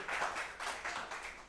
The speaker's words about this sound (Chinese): 相信的将荣耀一切归给我们的神，一起来拍手拍掌，感谢我们的主。